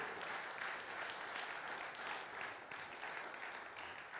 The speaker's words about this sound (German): Ja, lass uns dem Herrn einen kräftigen Applaus geben.